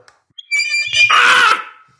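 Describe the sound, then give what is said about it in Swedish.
A loud, harsh squawk from a tube being blown while bitten: a strained, reedy tone that breaks into a raspy, buzzing blare for about a second, then cuts off. No talking. “Om man biter i röret så låter det alltså...”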